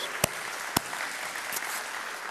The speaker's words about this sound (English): Give God another praise clap this service.